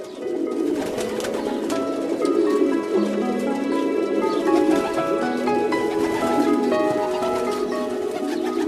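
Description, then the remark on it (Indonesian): Several pigeons coo continuously, a male calling repeatedly to a female, their low, throaty rolling calls overlapping in a steady murmur with occasional louder swells, with no talking. “Coba perhatikan ketika sang jantan bertalu-talu memberikan pujian, sementara sang betina tertunduk malu.”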